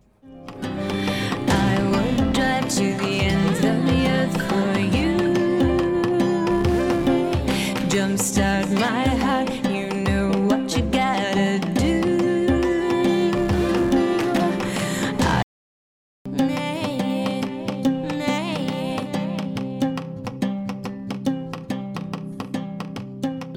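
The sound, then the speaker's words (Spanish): A second demo recording of a full-band rock song with sung vocals plays loud and steady, drops out for a brief silent moment midway, then resumes and eases off slightly toward the end, where it has a few extra seconds as the song fades out. “La diferencia principal entre estos dos demos es que este segundo tiene unos segundos extra que escuchamos ahora al final, donde el tema se va en fade.”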